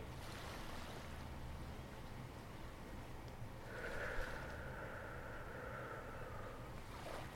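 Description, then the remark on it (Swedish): A steady, rushing wash of ocean waves rolls on continuously at a soft, even level, with a faint droning hum joining partway through. No one speaks. “Hur vågorna låter, hur fåglarna låter, hur nära vågorna är, hur långt bort vågorna är kanske.”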